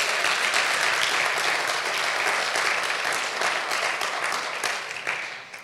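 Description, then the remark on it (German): An audience breaks into sustained, loud applause for a coffee-bar team, many hands clapping in a dense, even wash that holds steady for several seconds before tapering slightly at the end. “Wollen wir mal einen richtig dicken Applaus geben?”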